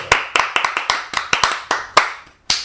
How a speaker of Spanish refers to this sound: nuestra querida amiga Patricia Conde Conde. Un aplauso, A ver qué es lo que esconde Patricia Conde.